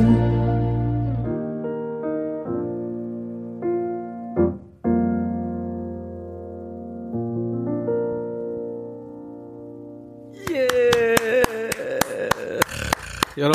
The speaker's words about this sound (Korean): 여러분들 대신해서 제가 물개박수 이렇게 치는 겁니다.